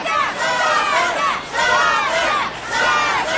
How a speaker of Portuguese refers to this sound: Gritando Satã, torcendo para Satanás.